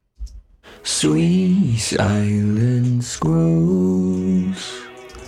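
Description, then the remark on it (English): A sustained sung vocal line with long held notes, doubled underneath by a lower voice from a pitch-shifter effect that gives it an eerie, devil-like tone, mixed so it is noticeable but not overpowering; fairly loud. “Which sort of sounds like this weird sort of devil voice underneath, sort of.”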